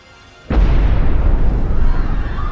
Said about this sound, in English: All of a sudden, you hear a blast, and it sounded like a huge clap of thunder. It was terrifying because I knew it was a bomb.